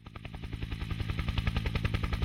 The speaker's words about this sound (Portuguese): Verão de 2011. Um helicóptero coberto com logos da Red Bull sobrevoa as montanhas da Patagônia chilena. À medida que o helicóptero passa por um pico escarpado, a equipe de filmagem e os snowboarders se esforçam para ter uma melhor visão.